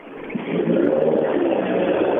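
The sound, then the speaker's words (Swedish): A Volvo rally car driving past, its engine roaring steadily, rising quickly in loudness within the first half second and then holding a dense, rumbling drone with no voices. “Det är en Volvo i alla fall.”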